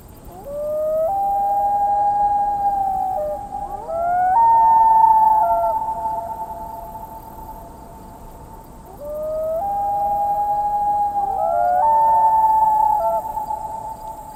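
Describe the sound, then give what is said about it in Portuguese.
A loon's eerie, wolf-like wailing call rises and holds in long sustained tones, sounding twice with a pause between, clear against a quiet outdoor background with no voices. “E que faz um som muito estranho, aterrorizante de lobo, né? Um som parecido com o uivo de um lobo.”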